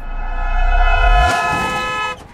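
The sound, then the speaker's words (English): A loud car horn blares in one long continuous honk at a person standing in the road, over an engine rumble and a rushing car pass-by, then cuts off abruptly. “Get out of the road, Space Case.”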